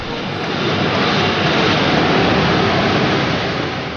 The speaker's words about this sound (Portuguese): esses sons vêm das impressoras de dinheiro do Banco da Inglaterra